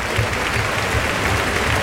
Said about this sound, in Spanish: Ahí está. Morante de la Puebla que va a salir a saludar esta ovación que oye.